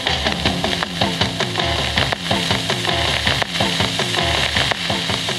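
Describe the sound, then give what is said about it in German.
Music plays from a record made of ice through a thick layer of constant crackling and hissing surface noise, the tune steady and rhythmic but buried under sizzling static, with no voices. “This is exactly what a record made out of ice sounds like.”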